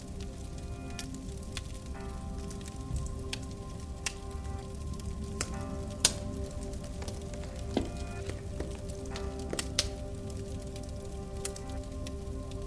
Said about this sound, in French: De temps en temps, les crépitements s'accentuent, accompagnés d'une douce odeur de bois fumé.